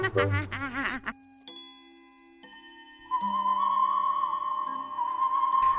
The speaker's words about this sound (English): Time for bed, said Winnie the Witch as the clock struck twelve.